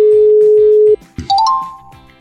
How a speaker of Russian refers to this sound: Слышали этот волшебный ну звук? Это фея.